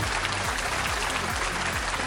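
A short, steady burst of applause from a crowd, dense clapping that stays at an even loudness throughout, with no voices over it.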